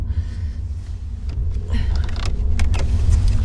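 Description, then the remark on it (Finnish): Rauni Airue's car drives with a steady low engine rumble throughout, and an electric power window whirs in short bursts partway through, inside the cabin. “No, tässä mä ajelen Rauni Airuen autolla kohti pimeyden sydäntä.”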